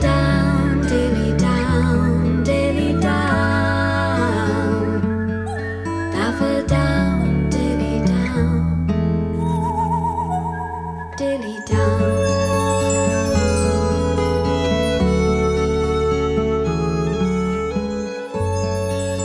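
A folk song plays steadily and fairly loud, with layered instruments, a full low end and bright chiming tones. There is no spoken talk over the music.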